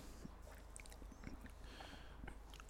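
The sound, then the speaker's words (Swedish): An animal gnaws on a bone, with soft irregular crunching and clicking against a steady low hum. The sound is faint, with no voices. “Eh, vad tuggar han på nu då? Ben.”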